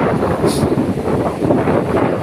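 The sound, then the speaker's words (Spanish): Steady, loud wind roars across the microphone with a constant low rumble of open-sea surf beneath it at a beach in Cancún, a continuous outdoor wash with no voices. “Hoy estoy en mi lugar favorito, por ejemplo. Necesitaba estar cerca del mar, conectada,”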